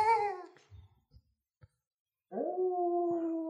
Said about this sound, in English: the howling of the wolves fills our ears.